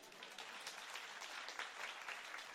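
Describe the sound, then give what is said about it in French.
A crowd claps steadily, a dense, continuous patter of many hands at an even level with no voices standing out. “Ma sœur est toute seule à applaudir, accompagnez-la s'il vous plaît.”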